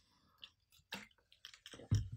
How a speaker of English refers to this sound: I'm going to have a sip of water